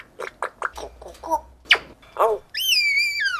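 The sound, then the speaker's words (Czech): A baby parrot chatters in a quick run of short, raspy chirps, then holds a long, bright, slightly wavering whistle, fairly loud, with no one talking. “To seš vlastně papouští mimino.”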